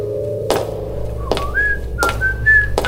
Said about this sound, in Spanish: Escucha silbidos de su hijo.